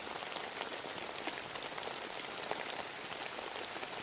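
Steady rain falls late at night and patters on a surface, heard from home, a dense, continuous hiss of drops with a few slightly louder splashes and no voices.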